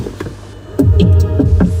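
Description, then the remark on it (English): An Audi's door-opening chime, sounded every time a door is opened: low, thumping double pulses like a heartbeat, repeating a few times over a steady engine-like hum, fairly loud, with no talking. “That's the uh, that's the Audi heartbeat. It, it does a heartbeat every time you open the door.”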